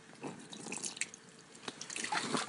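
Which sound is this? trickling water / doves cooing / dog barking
trickling water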